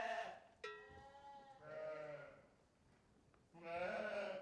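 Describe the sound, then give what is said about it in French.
Several ewes bleat in a barn, overlapping wavering cries rising and falling across a few seconds, fairly loud, with a brief sharp knock near the start. “Donc euh, les brebis elles vont manger du foin et du regain.”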